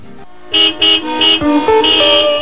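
Several car horns honk in overlapping bursts, loud, some short toots and some longer blasts, with the rumble of dense, heavy traffic underneath and no voices.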